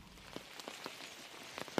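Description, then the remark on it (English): Steady rain patters down amid foliage at the edge of Pureora Forest in the central North Island on a wet afternoon, a soft continuous hiss broken by scattered louder drips and drops, with no voices. “So it's a wet, rainy afternoon. We can probably hear the rain falling around us.”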